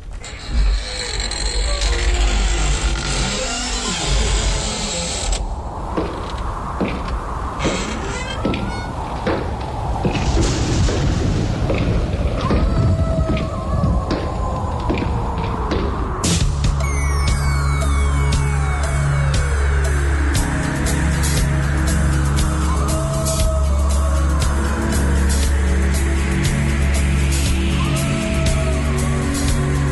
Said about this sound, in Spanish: Bueno, bien. Arranca muy bueno, ¿no? Digamos, muertas, pasos, aullidos.